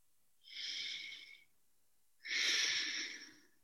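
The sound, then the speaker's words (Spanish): A slow, deep breath drawn in through the nose and then released, two soft airy whooshes about a second each with a short pause between, quiet, no talking. “Hacemos una respiración profunda.”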